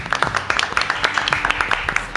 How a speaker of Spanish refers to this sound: El señor Carlos Rottenberg está con nosotros. Un lujo. Vamos a pedir un aplauso enorme.